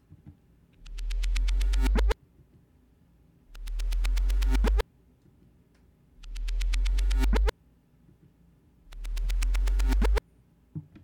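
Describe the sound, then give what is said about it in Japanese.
A reversed sound effect plays four times, each one swelling up from silence with a deep, tonal rush and then cutting off abruptly. A faint gritty crackle, added by the free noise plugin Snows, sits under some repeats, with no talking. “え最初これなしで次これありでっていう感じで再生していきます。”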